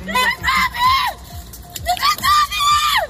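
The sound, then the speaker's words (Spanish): A woman walking around the rubble of a collapsed building shouts and wails in long, strained, high-pitched calls to find her family, repeated several times over about three seconds, with a murmur of other voices and commotion in the background. “Para que te hagas una idea, esto que escuchas es una mujer que camina alrededor de los escombros de un edificio gritando para encontrar a su familia.”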